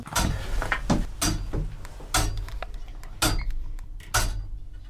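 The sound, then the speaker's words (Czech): Loud clicks and knocks from the mechanism of a homemade astronomical clock, repeating roughly once a second with a slightly uneven rhythm over a low mechanical rumble and faint creaks, with no talking. “Pojďte se podívat do strohovny, ať uslyšíte, jak to hezky tiká.”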